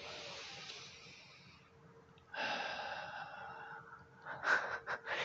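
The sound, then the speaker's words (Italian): A long, slow inhale, followed by a fuller, louder exhale and a few short breathy puffs at the end, with no talking. “la scelta che faccio in ogni momento è di essere grato, la scelta è mi fermo, faccio un bel respiro”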